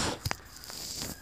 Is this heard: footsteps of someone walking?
yes